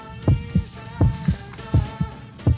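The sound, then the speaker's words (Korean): A steady heartbeat thumps in paired lub-dub beats, about three double pulses in quick succession, deep, over a soft sustained musical hum with no one speaking. “머리도 옷 입는 모양도 대학생 같은 느낌이었는데 나도 모르게 가슴이 두근거렸습니다.”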